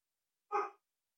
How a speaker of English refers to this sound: this is my dog is barking because someone's coming over, so I just wanted to.